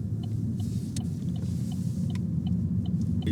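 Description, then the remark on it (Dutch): Steady low engine rumble and road noise from inside a moving car, continuous and fairly loud, with faint small clicks and rattles from the cabin, no one speaking. “Gelukkig is dat geen probleem en een week later zitten we naast in de auto.”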